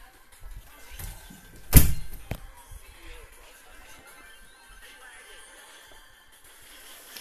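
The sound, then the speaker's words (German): A door swings shut with one loud thud and a quick follow-up knock, then near silence with faint background noise. “Ähm, ich mach mal kurz die Tür zu.”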